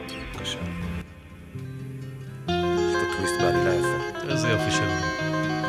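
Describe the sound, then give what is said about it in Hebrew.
A lively instrumental song intro with layered melodic lines over steady low tones, growing fuller and louder partway through, with bright high flourishes and no voices. “כניסה לשיר.”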